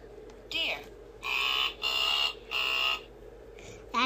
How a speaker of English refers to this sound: That's a silly sound. Yeah, it is. I did, never heard a deer make that sound, and we see deer all the time.